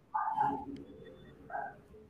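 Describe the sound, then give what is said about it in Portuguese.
Two short, muffled dog barks, the first slightly longer, with a quiet pause between them and no talking. “Agora é o cachorro.”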